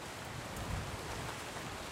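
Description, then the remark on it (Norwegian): Steady outdoor rain hissing continuously, with a low, rushing undertone of strong wind, in Sogn og Fjordane, Norway, on an autumn day in September with changeable west-coast weather. The sound is dense and fairly loud throughout, with no voices. “Det er regn, det er sterk vind, og det er sol og litt kaldt.”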